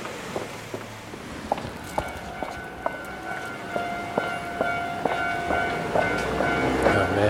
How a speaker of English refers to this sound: I love when trains go by.